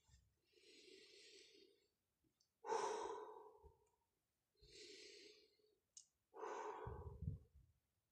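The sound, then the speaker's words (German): Two slow, deep breath cycles, each a long airy inhale followed by a heavier, louder sighing exhale, with no talking. “Ich weiß jetzt nicht, ob du mein Ein- und Ausatmen gehört hast, aber wir gehen jetzt einfach so langsam richtig gemütlich.”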